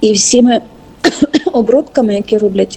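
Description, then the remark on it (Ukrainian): A single short, sharp cough breaks up a man's speech, with him talking right before and after it. “Добре, не буду лаятись, бо кашлю.”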